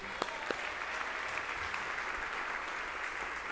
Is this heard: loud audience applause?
yes